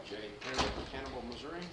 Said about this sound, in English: Can we close the doors as you come in? Thank you.